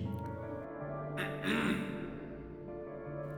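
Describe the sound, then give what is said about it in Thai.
A mysterious man clears his throat once, a short, rough, gravelly burst, fairly loud over a steady, quiet hum, in a dark, quiet school, the sound coming from behind a building. “แต่แล้วจู่ๆก็ปรากฏเป็นเสียงชายปริศนาทำเสียงกระแอมให้ได้ยิน”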